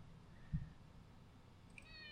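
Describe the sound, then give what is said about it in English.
A cat, Tara Jr. Jr., gives one short, high-pitched meow toward the end, fairly quiet, after a soft thump earlier against a faint background hum; no one speaks. “Everybody's asking for the cat. Get up here, kid.”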